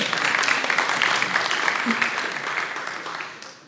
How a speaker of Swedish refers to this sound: Mamma och pappa som råkar vara här idag. En applåd för mamma och pappa.